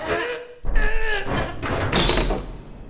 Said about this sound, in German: Oben versperrt die Eisentüre den Weg aufs Dach. Sie ist nicht abgeschlossen, aber so schwer, dass sie sie zum zweiten aufdrücken